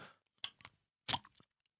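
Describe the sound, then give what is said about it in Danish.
A bottle of Gylden Daggry beer being opened: a couple of brief metallic clicks, then a louder short pop with a fizzy hiss, trailing off into a few faint ticks. No one speaks. “og hiver ud af min hold to dejlige flasker gylden dagbry, som jeg så åbner her, og så den her øl.”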